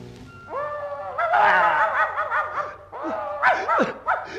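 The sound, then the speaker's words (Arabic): A black dog whimpers and yelps, a run of high, sliding whines broken by a few short barks, fairly loud and continuous for several seconds with no talking. “كلب اسود اهو ده اهو ده الحارس الكبير”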